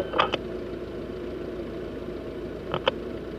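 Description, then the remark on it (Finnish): A steady, low engine hum fills the cabin of an idling taxi on a dark evening, with a couple of brief, sharp clicks or taps standing out near the start and again toward the end. “Pimeänä iltana istun taksin takapenkillä. Myös auton sisällä on pimeää.”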